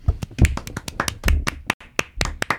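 Scattered applause from a small group: sharp, irregular hand claps, about a dozen or more in quick succession, fairly loud, with a brief lull near the end and no voices.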